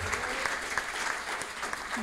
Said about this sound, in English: oh my God, thank you very much. Everybody, Bill Doran, give him a, a round of applause.